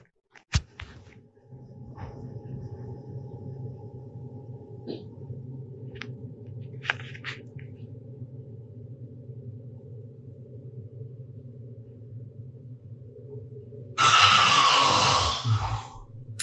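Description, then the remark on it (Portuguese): A bariatric surgery patient in a hospital room snores loudly at 5 in the morning: a deep, heavy, rattling drone that continues almost without pause, broken near the end by a sudden harsh, breathy burst. “Ronco do Bariátrico”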